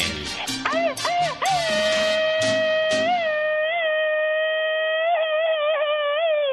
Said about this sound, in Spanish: Oye, qué gritote.